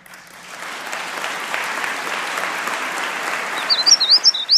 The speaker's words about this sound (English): First sustained applause for Chris Christie's State of the State comes when he speaks of compassion for drug addicts.